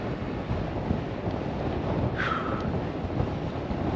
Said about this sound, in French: Eh ben, le vent souffle bien toujours. Hein. Nord vers le sud, en plein dans la bouche.